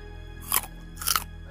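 Two loud crunches about half a second apart, like someone biting and chewing a raw carrot, with no voices and only a faint steady hum between them.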